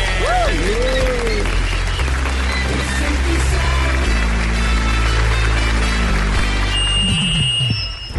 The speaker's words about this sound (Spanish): Recibamos con un fuerte aplauso al señor Luis Pérez.